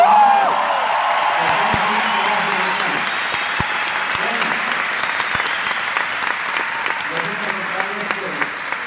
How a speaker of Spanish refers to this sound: ¡Aplausos!